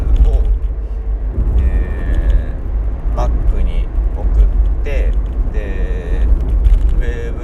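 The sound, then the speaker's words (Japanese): A steady, heavy low rumble of engine and road noise fills the cabin of a moving car throughout, with a man's voice talking over it. “今までは僕はこの車内でこうやって喋って録音したやつを”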